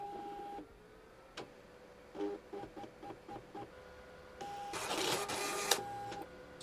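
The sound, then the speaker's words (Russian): A fax machine whirs and chatters as it takes in a five-page transmission, with steady tones, a run of short rhythmic mechanical pulses, then a louder grinding burst as the page prints, over a low hum. “Сейчас пришлю его вам по факсу.”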